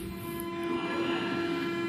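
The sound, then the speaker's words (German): An old train made of separate carriages rolls along with a steady, loud mechanical drone and a sustained tonal whine. The level holds even throughout, and no one speaks. “Das ist jetzt übrigens noch eine alte Bahn hier, die mit einzelnen Hängern, keine durchgängige.”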